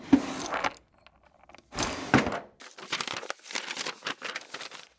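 Busy rummaging with papers rustling and crinkling in quick irregular bursts as someone searches for notes in a drawer and takes them out, a sharp knock like the drawer moving, then more shuffling and paper handling, with no voices.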